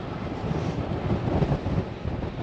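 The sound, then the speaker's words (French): Strong headwind buffets the microphone of a cyclist riding into it, in a continuous low roar, gusting and rumbling loudly throughout with no voices. “Avec le vent dans la face, de ne pas se ruiner les genoux.”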